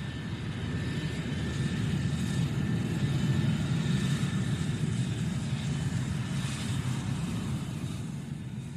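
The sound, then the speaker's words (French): A steady, distant airliner engine drone, heard during an astronomer's sky observation in an area where airliners are extremely frequent; a low broad rumble with a faint whine above it, holding nearly constant for the whole stretch with no voices. “Au moment de l'observation, on entendait le bruit caractéristique et assez éloigné d'un avion de ligne.”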